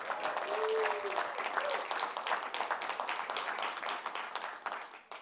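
An audience applauds steadily for about five seconds at a Policy School on-campus event, a dense patter of many hands clapping before it quickly fades out at the end.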